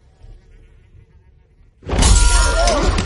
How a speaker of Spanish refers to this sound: Rompe la copa y le hace cortes.